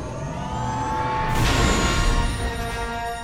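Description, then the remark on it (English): A humming sci-fi engine drone suddenly surges into a loud, bright rushing whoosh, then holds as a steady roaring tone, like a spaceship blasting into hyperspace. No voices. “Tim, are we set to make the jump? Yep. The engines are primed and coordinates for the rendezvous are set.”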